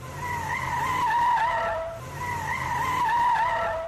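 Tires squeal in two long, wavering screeches, one right after the other, over a low engine rumble as a car skids loudly, with no one speaking.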